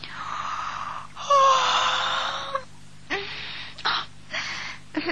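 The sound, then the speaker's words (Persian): A drawn-out, breathy yawn with a brief voiced moan in the middle, trailing into a few shorter airy exhalations separated by short pauses. “تا اون که سرانجام یه روز صبح درست با برآمدن آفتاب نقاب از چهره برداشت و با اینکه اون همه دقت و ظرافت رو آرایش و پیرایش خودش به کار برده بود خمیازه کشون گفت”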